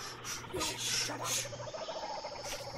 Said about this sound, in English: It's getting louder. Hodgkins, is that a Jimmy Jane Form 3 vibrator?